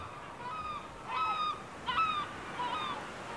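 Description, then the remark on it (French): Seagulls call in a series of harsh, nasal cries, about four bursts spaced roughly evenly, with a few birds overlapping over a steady background hiss, flocking in the sky above fish auction stalls by the sea. “Telle une voûte en mouvement, le ballet des mouettes emplit le ciel d'une symphonie de rires, annonciateur de festin.”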